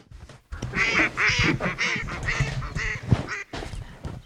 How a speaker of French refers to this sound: il va peut-être y avoir un vol de canard entre temps.